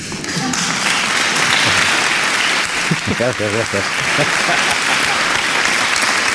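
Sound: applause sound effect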